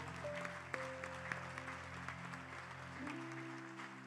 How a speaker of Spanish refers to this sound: Usted le da palmas fuerte al Señor.